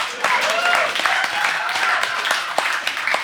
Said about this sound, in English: Thank you. Yeah, give us an applause break, you fucks.